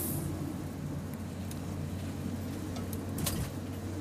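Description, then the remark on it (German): A car engine rumbles steadily as it drives past fast, a low droning roar with faint higher hiss and a few brief clicks, holding at a constant loudness with no one speaking. “Der sollte sich vielleicht eine Rakete zulegen. Ein Auto ist bei dem nicht richtig.”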